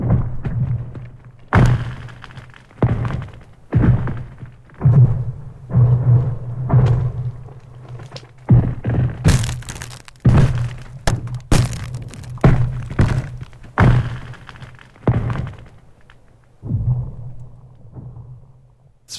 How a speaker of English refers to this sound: finding things like what I call kind of living ice, which is usually naturally occurring lake ice, that when it shifts and cracks, it makes these like sort of sci fi laser sounds.